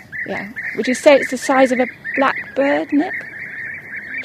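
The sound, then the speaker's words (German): A bee-eater, a very colourful bird about the size of a blackbird with a long pointed bill for catching bees and other insects, gives a series of short, rolling, purring calls, about five bursts in quick succession, clear over a steady high background tone. “Und der Klang ist auch irgendwie tropisch.”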